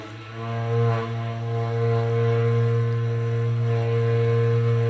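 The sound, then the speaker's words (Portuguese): A berrante cattle horn blown loud, holding one long, steady low note with a rich, buzzy tone that swells slightly and sustains unbroken throughout. “Hum, o berrante começa.”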